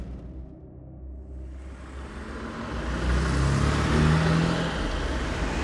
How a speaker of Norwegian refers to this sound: Det er jo masse trafikk rundt om her.